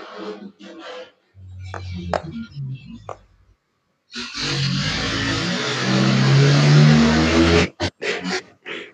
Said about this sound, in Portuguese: Caraca! Que isso? Passou um caminhão doido aqui.